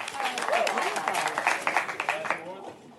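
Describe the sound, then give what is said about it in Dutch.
An audience at an award ceremony applauds steadily, a dense crackle of many hands clapping at once, fading slightly toward the end, with faint voices mixed in. “Maar dit applaus is voor jou.”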